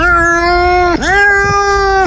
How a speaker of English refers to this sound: That's my cat meowing during the uh, thunder that came the other day. I had to record it over and over again.